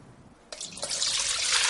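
After a brief quiet moment, a tap turns on and water runs in a steady, bright hiss, with soft splashing as a doctor washes his hands under the stream in a consultation room, growing slightly louder. No voices.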